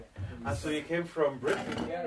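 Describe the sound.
Voices talk over a busy kitchen as coffee is made for guests, with dishes and cutlery clinking and clattering in short bursts.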